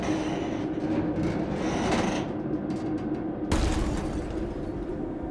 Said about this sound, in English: and then the sound of something fucking electrical, like shorting out, I guess. The huge boom came from our main network receiver dish. It's like 30 feet in diameter and it's up on this huge robotic tripod. The thing somehow slipped out of lock